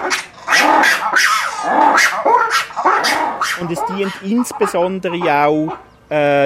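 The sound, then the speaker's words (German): A man talks briefly, then black-and-white ruffed lemurs break into loud calling, a raucous, harmonic chorus of barks and wails that carries on steadily to the end. “Und zwar haben sie eine sehr laute Stimme, was man ihnen gar nicht zutrauen würde, aber sie können richtig brüllen, schreien, quietschen, was sie auch mehrfach am Tag machen.”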